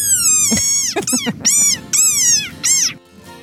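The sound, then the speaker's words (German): A desert rain frog's defensive squeak: a run of five shrill, high-pitched squeals with a falling, whiny tone, loud, separated by brief gaps, with no voices present. “und dann kommt der Feind und, und er wird komplett aggro und sagt.”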